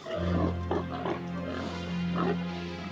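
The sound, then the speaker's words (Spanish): Pigs grunting and oinking, a dense stretch of low, rough snorts with a couple of louder squealing bursts standing out, continuous for a few seconds with no talking. “los espíritus impuros salieron del hombre y entraron en los cerdos.”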